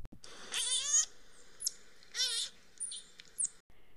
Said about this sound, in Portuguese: E no alto de uma árvore, um bando de micos guinchava e fazia macaquices.